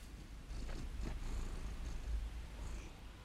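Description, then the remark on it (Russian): A cat purrs steadily, a soft continuous low rumble, with a few faint brushing bumps as it rubs against a laptop, wanting to be petted. No one speaks. “Нет, он просто трется о ноутбук и э, всячески хочет, чтобы его погладили.”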